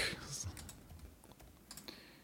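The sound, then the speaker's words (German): Quick, irregular clacking of computer keys as a person types in times, fairly quiet, with a few sharper key hits standing out over a soft background. “Ich höre mich da tippen und ihn klicken.”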